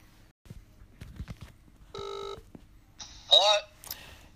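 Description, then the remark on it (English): Telephone dialing: a scatter of soft taps and clicks, then a steady electronic tone, followed by louder, brighter warbling beeps and a final short burst. “So we're going to give him a call and see if we can try and get it out of him.”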